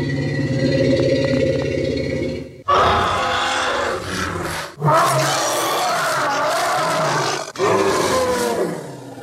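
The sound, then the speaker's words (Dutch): A person's imitation of a mammoth call, found on YouTube: a low rumbling, grinding start followed by several loud, roaring bellows with brief breaks between them, harsh, with no talking. “En uiteindelijk op YouTube hebben we iemand gevonden die het geluid van een mammoet heeft nagemaakt.”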